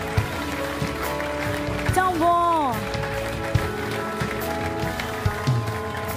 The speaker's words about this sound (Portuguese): Uau, vamos dar uma salva de palmas a estas pessoas.